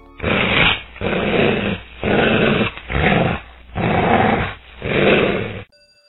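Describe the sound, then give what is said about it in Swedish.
A series of six loud, rumbling growls from five hungry lions, each lasting about half a second with short pauses between, deep and raspy, with no talking. “Benny hörde ett morrande bakom sig. Han vände sig om och såg fem hungriga lejon.”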